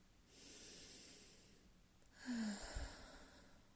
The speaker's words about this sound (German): Atme einmal tief ein und wieder aus. Lass beim Ausatmen gerne ein kleines Geräusch entstehen, wie ein sanftes Stöhnen.